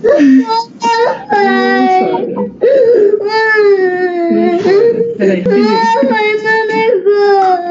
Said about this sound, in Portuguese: o que foi? O que você tá chorando?